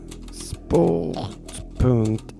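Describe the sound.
Scattered light clicks of typing on a polished computer keyboard, entering the web address 888sport.se, a few quick keystrokes spread irregularly, interrupted by two loud voiced vocal bursts.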